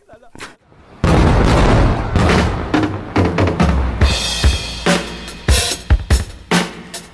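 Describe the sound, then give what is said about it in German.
A firecracker is lit and goes off with a sudden loud bang after a quiet moment, followed by several seconds of rumbling, crackling bursts and sharp pops that gradually thin out. “Ich zünd jetzt den Knaller.”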